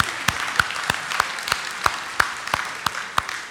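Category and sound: crowd, audience round of applause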